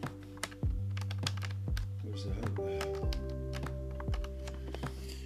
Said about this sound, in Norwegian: For å få en skikkelig sånn pangeavslutning på sendinga, så må jeg koble til dette keyboardet mitt. Eller tastatur, eller hva det heter for noe.